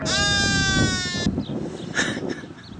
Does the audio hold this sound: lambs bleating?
yes